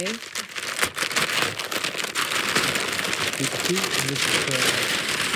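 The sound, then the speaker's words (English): Gift wrapping paper crinkles and rips as a gift is opened, a loud, continuous rustling crackle lasting several seconds, with faint voices murmuring underneath. “Can I open it now?”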